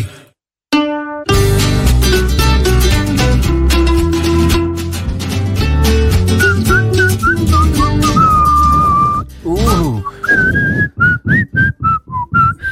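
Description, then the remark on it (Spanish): Someone whistles loudly, a wavering, sliding melody carried over full, steady background music, with the whistled notes growing choppier and more clipped near the end. “Viene, viene, fuerte tu silbido de allá, ¿eh?”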